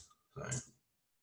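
A single sharp, fairly loud click from a device, made while looking up the name of a TV show, briefly standing out in an otherwise quiet moment.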